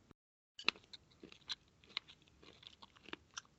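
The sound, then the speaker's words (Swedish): A big, crunchy bite followed by a series of moist chewing crunches at an irregular rhythm, someone eating a cold chocolate ball that had been kept in the fridge, with no talking. “Jag tog en så stor bit.”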